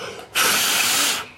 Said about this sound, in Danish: Kan jeg puste? Var det bedre? Ikke bedre. Mere pusteri. Mere pusteri. Mere pusteri.